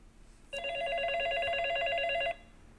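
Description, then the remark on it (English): A telephone rings once in a single sustained burst of almost two seconds, a bright, buzzy electronic trill that starts and stops abruptly against a quiet background with no talking. “Hey, it's not a hairbrush. It's my secret spy telephone.”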